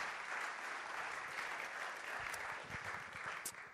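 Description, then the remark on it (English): A crowd applauds steadily, a dense wash of many hands clapping at an even level for several seconds without any voices standing out, welcoming a speaker. “So let's please give a warm round of applause for”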